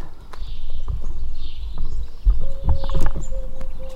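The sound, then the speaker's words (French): Morning farm ambience outdoors in Majac: a steady low rumble with scattered hoof-like clops and knocks, faint chirps up high, and a thin sustained tone that enters partway through. “Ambiance ferme le matin à Majac.”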